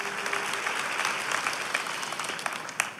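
An audience applauds the Holy Spirit steadily, a dense wash of many hands clapping at a fairly even level with a few sharper claps standing out, and no one speaking over it.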